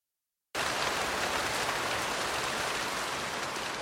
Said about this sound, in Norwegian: Det regnet noe helt inn for jævlig.